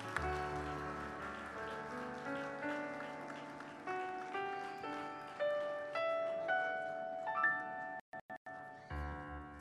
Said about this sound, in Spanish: Ese aplauso es de alabanza para el Señor. Aleluya.